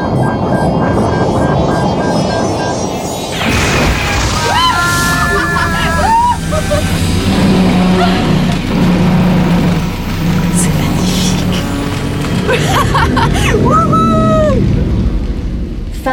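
A futuristic flying taxi engine roars and accelerates, with whining pitch sweeps rising and falling over a dense, loud rumble and faint background hubbub, building again toward the end.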